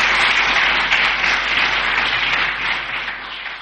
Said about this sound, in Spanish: Bueno, ahora el aplauso, ahí está.